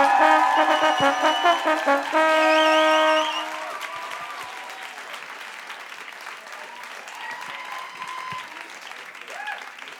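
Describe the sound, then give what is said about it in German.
An audience claps steadily and loudly for the whole stretch, applauding a rapper, with a short musical sting ringing over the opening seconds and a few scattered whoops and voices rising out of the clapping later. “Einen großen Applaus für …, bitte.”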